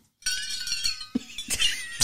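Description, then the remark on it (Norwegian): Ice cubes clink and rattle inside a bottle, a bright glassy jangle that comes in several shaken bursts over two seconds, with no talking. “Du har isbiter på ei flaske her.”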